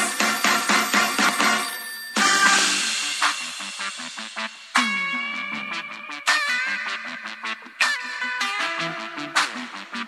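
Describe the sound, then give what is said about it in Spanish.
A bright electronic phone ringtone plays alone, a quick repeating melody of sharp tonal beeps with a brief burst of noise partway through, loud throughout. “Agarre su teléfono, marque y comenzamos.”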